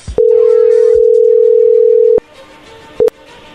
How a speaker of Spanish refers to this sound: Ahí está entrando la llamada,